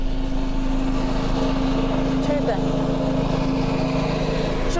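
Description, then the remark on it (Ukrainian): Several engine-driven power generators drone steadily outdoors on a street in central Kyiv, Ukraine, during wartime energy shortages, a continuous low mechanical hum with a faint whine layered above, filling the street with constant noise and no pauses. “генераторів. Таке зараз всюди.”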